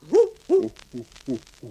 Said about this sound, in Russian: ухнула сова